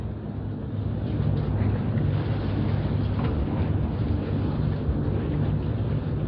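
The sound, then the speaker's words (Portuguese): A steady, loud roar of stormy wind and churning water, with a deep low rumble underneath, continuing without break and no voices present: storm waves in the Amazon making a floating house rise and fall. “O flutuante sobe e baixa.”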